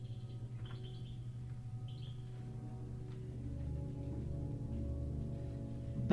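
Brief, high bird chirps and tweets call out in the first few seconds over a steady low rumbling tropical rainforest ambience that continues and swells slightly toward the end.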